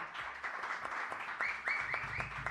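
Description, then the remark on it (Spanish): An audience applauds in a steady, dense patter of many hands clapping, holding a fairly even loudness throughout with a few sharper claps standing out. “Así que voy a pedir un aplauso para los mejores”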